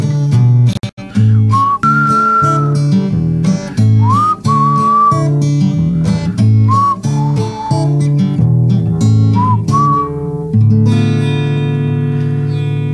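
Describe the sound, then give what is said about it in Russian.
A person whistles a gliding, sliding melody in short phrases over steady instrumental backing music, loud, ending with the music alone. “Ну, вот как вы научились свистеть”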